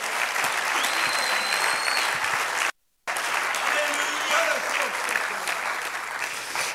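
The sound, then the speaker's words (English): A church audience claps steadily in a dense, continuous wash of applause during a sermon, with scattered voices and cheers underneath; the clapping cuts out abruptly for a fraction of a second, then resumes just as full. “I wish everybody would clap if you believe the Holy Ghost can do that.”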